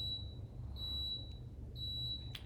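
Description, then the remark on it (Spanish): A high-pitched electronic alert beep sounds in long, steady tones that cut off and restart, over a low rumbling background, clear. “Bien, ya pasó el pitido. Era un, eh, pitido de alerta”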